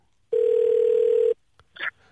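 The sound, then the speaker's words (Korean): A telephone tone as a radio show places a call to a field reporter: a steady, loud tone holds one pitch for about a second, then cuts off, followed by a brief faint click and a short higher burst of sound. “0814님 전화 걸어주시기 바랍니다.”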